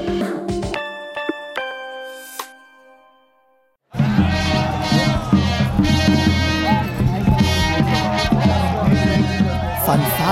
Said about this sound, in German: Lärm und Jubel in Landshut. Bürger in edlen Gewändern, Ritter auf mächtigen Pferden. Es wird wieder Hochzeit gehalten in der Stadt, so wie 1475,